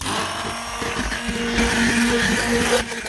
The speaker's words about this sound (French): Je le déglace avec la crème qui est chaude. On va ajouter le beurre, une pincée de fleur de sel donc là, ce que je vais faire, c'est que je vais lisser ma crème avec un mixeur plongeant.